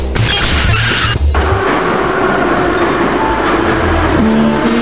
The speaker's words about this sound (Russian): Метро.